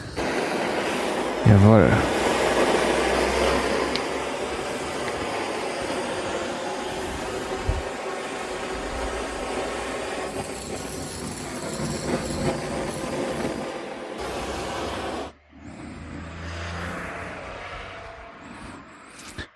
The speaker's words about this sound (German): Und jetzt kommt Monsieur Laterne, die Lötlampe. Bisschen windgeschützt erstmal hier.